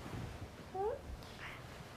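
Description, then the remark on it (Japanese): A single short meow from a cat, clear, rising then falling in pitch, over faint background noise. “なんか泣いた”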